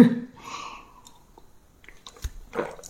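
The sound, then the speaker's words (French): Someone sips a drink: a soft slurp followed by quiet pauses, then wet mouth clicks and a swallow. No one speaks. “Ça, d'habitude, tu ne l'entends pas sur le podcast, parce que quand je parle, j'ai soif.”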